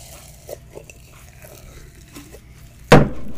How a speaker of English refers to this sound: I'm also going to be playing with slime in this because it helps me focus pretty much. Might be a little loud.